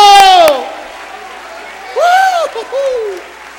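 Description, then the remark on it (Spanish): A church audience breaks into applause during a sermon, mixed with loud rising and falling vocal whoops, a short burst that dips, then swells again with more cheering shouts before trailing off. “¡Fuerte ese aplauso!”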